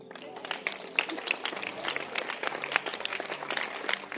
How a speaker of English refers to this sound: Clap your hands for your husband.